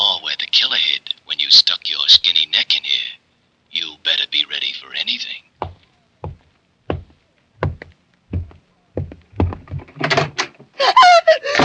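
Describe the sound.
A door opens as someone comes in, amid a run of sharp wooden knocks and thumps spaced over a few seconds, with people talking before and after.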